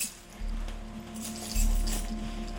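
About 50 metal keys on a woman's keyring jangle and clink in quick, irregular bursts as she climbs the stairs of an apartment building in Munich, over a steady low rumble with faint rhythmic footstep thuds.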